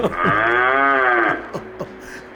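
A cow lets out a long, loud moo with a rising and falling tone, followed by a few short thuds or clanks, heard over a farmer's mobile phone line during a call to Peter van der Veire's evening radio show.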